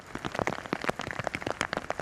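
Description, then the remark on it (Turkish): Heavy rain that began suddenly pours steadily in Istanbul in the evening, a dense patter of drops striking a hard surface with brief sharper splashes throughout, fairly loud, with no voices. “İstanbul'da akşam saatlerinde bir anda başladı yağmur.”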